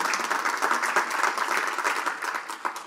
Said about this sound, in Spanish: Sí, dale bien fuerte, dale bien fuerte ese aplauso al Señor.